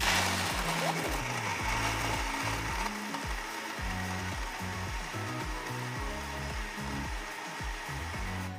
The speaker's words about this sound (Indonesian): Nah, ini udah selesai ya di blender bisa dilihat udah creamy-creamy.